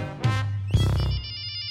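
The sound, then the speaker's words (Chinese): A telephone rings: two loud buzzing bursts over a low hum, followed by a rapid, steady high-pitched electronic trill. No one speaks. “第二天，猪打电话问：“ 喂，在办公室吗？”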